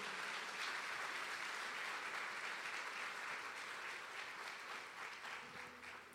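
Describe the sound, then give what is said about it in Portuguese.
A large crowd applauds the name of the Lord, a steady, dense wash of many hands clapping at once that fills the whole stretch and tapers slightly toward the end. “Você pode aplaudir o nome do Senhor em nome de Jesus?”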